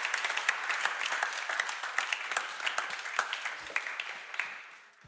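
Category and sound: crowd, big round of applause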